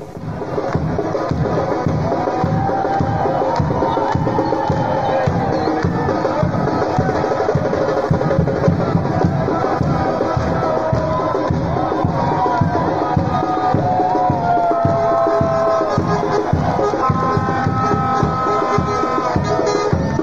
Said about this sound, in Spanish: Ahí está el momento cuando llega el bus de Melipilla a la plaza de armas de esa ciudad, con redoblantes, con bombos, con platillos y la gente cantando.